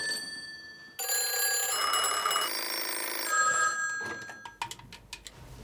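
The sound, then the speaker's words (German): The old-fashioned mechanical bell of a 1970s or 1980s telephone, a film prop, rings loudly in a sustained metallic burst, then fades into a few scattered clicks and rattles. “Also die ganzen 70er, 80er Jahre Telefone ist nach wie vor immer ein Dauerbrenner.”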